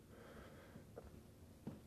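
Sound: throat clearing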